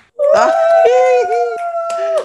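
A single voice lets out a long, loud, wavering scream with pitch swoops, punctuated by a few sharp clicks like finger snaps, as a welcome for a comedian on a show without a radio studio; no real crowd applause.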